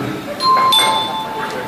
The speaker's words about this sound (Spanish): Pues llegó la señora y, tocó, y el timbre, ¿no?